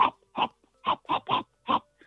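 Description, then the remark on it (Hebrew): Wet, squelchy munching meant as the sound of something gnawing at one's brain, six loud chomping bursts in an uneven rhythm with short silent gaps between them and no voices. “לא, לא, לא, זה היה רעש של משהו שאוכל לך את המוח.”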